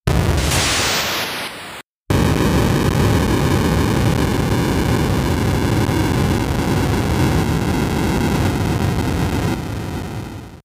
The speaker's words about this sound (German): Das war ja lächerlich, was an Explosionen da aus den Chips herausgezaubert wurde. Aber hier, das ist ein richtiges Brummen.